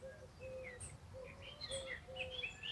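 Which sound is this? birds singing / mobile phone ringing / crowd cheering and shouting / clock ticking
birds singing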